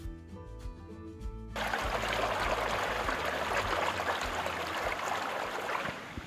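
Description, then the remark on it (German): Water flowing through a sluice gate that has just been turned down to let less water into a channel fed from the Seebach stream: after a brief low tonal hum, a loud, steady rush of water starts abruptly and continues, with no voices. “Ich habe gerade die Stellfalle, das ist der Beginn der Halteruhr, etwas runtergedreht, um etwas weniger Wasser ins Wurf fließen zu lassen.”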